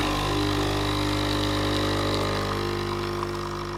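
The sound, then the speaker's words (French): An espresso machine's vibratory pump buzzes steadily and loudly, a dense mechanical hum with a rattling edge that holds constant for the whole few seconds, with no voices; it combines the hum of the magnetic field and the hammering of the fast-moving piston, with vibration rattling the plastic casing and removable parts. “ce que vous entendez, c'est la combinaison du ronron du champ magnétique et le martèlement du piston qui se déplace à grande”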